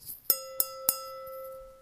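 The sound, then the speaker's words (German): A thin-walled, light Zalto Josephinenhütte universal wine glass, held in the hand, is tapped three times in quick succession, each bright clink leaving a clear, sustained ring that lingers and slowly fades in the quiet. “Zalto Josephinenhütte Universalglas, was ich hier in der Hand habe, ihr habt wirklich das Gefühl, ihr habt den Wein in der Hand.”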